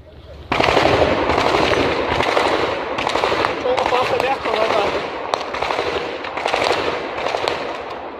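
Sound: gunfire exchange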